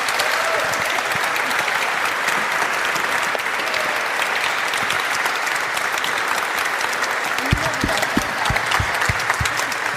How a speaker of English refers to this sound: Can we give a round of applause to these fellows?